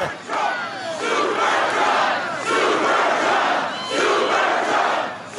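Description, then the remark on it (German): A large crowd lining a roadside cheers and roars continuously for 'Supertrump', with loud swelling waves of shouting voices that surge and dip in intensity, no single speaker standing out. “Am Straßenrand huldigten ihm die fanatisierten Massen und bejubelten ihren Supertrump.”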